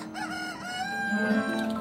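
A rooster crows once, a loud, drawn-out call that rises and then trails off over almost two seconds, on its own with no talking.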